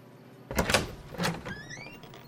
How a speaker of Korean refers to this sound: 에피페리는 다시 문을 열고 바깥 사무실로 나가 문고리를 붙잡은 채 말했다